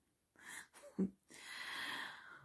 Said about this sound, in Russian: А сейчас вот храпит. Намучилась весь день, бедная.